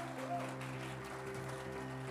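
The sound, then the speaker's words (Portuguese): An audience claps steadily for a couple of seconds for volunteers recognized as volunteer of the month, a dense, even patter of many hands, with a low sustained musical tone humming underneath. “Alguns voluntários, vamos dar uma salva de palmas para essas pessoas.”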